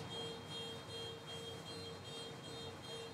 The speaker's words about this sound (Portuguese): Não é possível que esse cara deixou disparar o alarme de novo. Vou jogar uma pedra no carro dele e vai ver só.